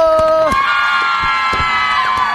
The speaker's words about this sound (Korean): 야 오픈 스튜디오 소리 질러!